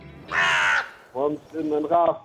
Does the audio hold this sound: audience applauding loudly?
no